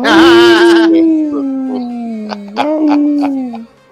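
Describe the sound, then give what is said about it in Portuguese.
A single long, loud wolf howl at the Team Wolf stand, holding a steady mournful tone that slowly sags lower before swelling upward again near the end and fading out. “Fiquei ouvindo o Uivo a minha viagem inteira.”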